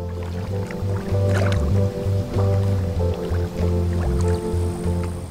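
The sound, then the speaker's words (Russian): Muffled underwater lake ambience: a deep, steady droning hum with gurgling lake water, soft bubbling and occasional drip-like plinks, continuous and fairly loud with no voices. “за стеклянными стенами движение озера в воде проплывают обитатели глубин – рыбы, змеи, струятся водоросли”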